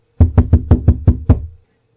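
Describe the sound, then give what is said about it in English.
Seven quick, evenly spaced, crisp knocks on a door, with a slight pause before the final rap, then silence. No voices. “At that moment, there was a quiet knock on the door.”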